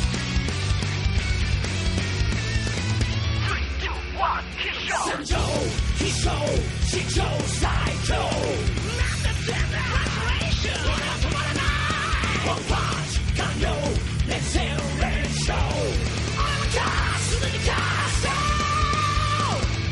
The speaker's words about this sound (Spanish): Y me despido con el opening de One Punch Man.